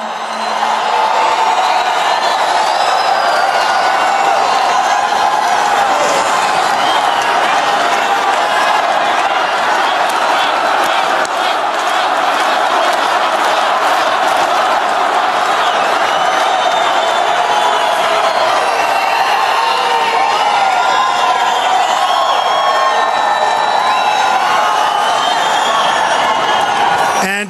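A large crowd at a presidential rally in Arizona roars continuously, a dense wash of cheering, shouting and scattered whoops with some clapping, loud and sustained throughout without pause.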